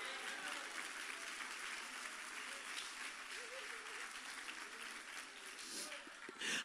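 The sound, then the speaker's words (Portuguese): A church audience bursts into sustained applause for the name of God, a dense, steady wash of clapping that holds at an even level throughout, with a few faint voices mixed in beneath it. “Cadê você que aplaude o nome dele?”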